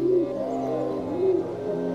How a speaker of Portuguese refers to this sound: Acredita-se que o ser humano domestica pombos, pelo menos há 5 mil anos.